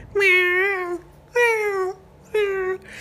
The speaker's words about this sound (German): Und heute Nacht hat die richtig Katzen gejammert. Also als wenn sie entweder wurde sie von einer anderen Katze beflautet oder umgekehrt und war hier so die ganze, äh, halbe Nacht oder so, zumindest längere Zeit, so eine halbe Stunde